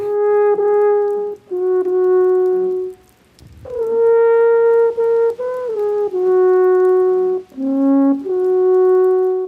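An alphorn plays a slow melody of long, sustained low notes, rich in overtones, with brief pauses between phrases and a few stepwise pitch changes; no one speaks.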